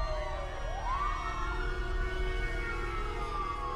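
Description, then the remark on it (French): Police sirens wail in the distance, the pitch sliding up and then holding a long, steady tone over a low rumbling background of city noise. “Les employés et les clients prennent leurs jambes à leur cou tandis que les sirènes de police se font entendre au loin.”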